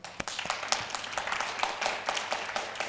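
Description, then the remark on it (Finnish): An audience at Tiedekulma applauds, a dense patter of many hands clapping steadily for a few seconds, with a few sharper individual claps standing out. “Annamme aplodit.”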